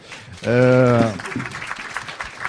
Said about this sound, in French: fait, comme ça, il prend les applaudissements pour lui.